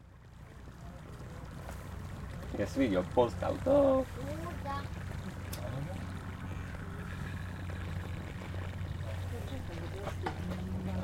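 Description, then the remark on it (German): An outdoor field recording beneath a linden tree in Linn on a Sunday afternoon: a steady low rumble and soft wind-like wash, with a few seconds of voices talking early on before the even background continues alone. “und jetzt, äh, hören wir noch ein paar Field Recordings, die wir gemacht haben.”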